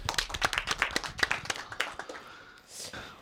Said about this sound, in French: on applaudit